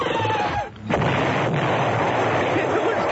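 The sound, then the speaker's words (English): A loud blowout burst goes off after a brief lull: a sharp bang followed by a sustained, roaring hiss of rushing air that stays loud to the end. “like a, a, tire blowing on a Formula One race car that just hit a speed bump at 192 miles an hour out around the turn and, and flew into the closet.”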